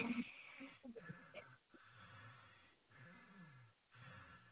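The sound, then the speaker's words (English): Loud, heavy breathing, with rhythmic rasping inhales and exhales repeating every second or so, slightly wheezy and snorting at the start. “I can't hear the goddamn music for all your goddamn breathing.”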